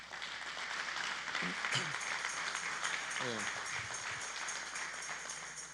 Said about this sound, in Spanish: Dale fuerte las palmas una vez más.